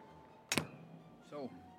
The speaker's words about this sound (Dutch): Dat was achterhoeks geluid van de beugels.